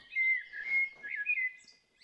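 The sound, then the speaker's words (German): An injured parrot chirps and whistles in a continuous, warbling stream of high-pitched tones for about two seconds, moderately loud, with no voices. “Denn ich habe hier einen verletzten Vogel, einen Papagei.”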